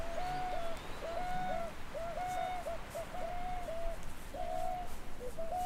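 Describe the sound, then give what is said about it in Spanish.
Distant pelicans call in a steady series of short, repeated cries, overlapping one another at a moderate level over a constant background hiss, with no talking. “Solo escuchó el graznido frío y cortante de unos pelícanos a lo lejos.”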